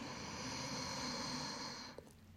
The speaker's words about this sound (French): Donc lorsque vous êtes sur le dos, le bassin sur un coussin ou un bolster, les jambes au mur, vous respirez amplement, c'est-à-dire j'inspire, je gonfle mon ventre